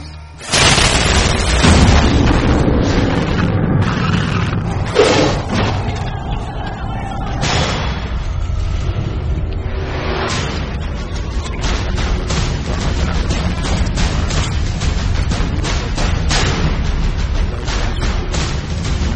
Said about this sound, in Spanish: Lo que estamos escuchando hace parte del tráiler de nuestra quinta película, el día de hoy, la última. Se trata de Secuestrados de Miguel Ángel Vivas, la película española del año 2010.